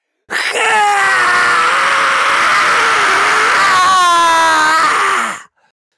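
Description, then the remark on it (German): A terrible, drawn-out scream of about five seconds, loud and raw, its pitch wavering and straining upward near the end before cutting off abruptly. No talking accompanies it. “Ein fürchterlicher Schrei.”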